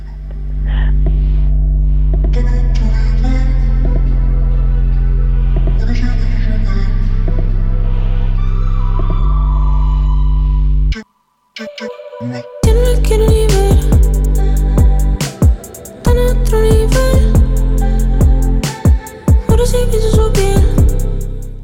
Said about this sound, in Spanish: súbenos un poquito la música, David. Escuchamos uno de esos temas antiguos que tampoco son tan antiguos en realidad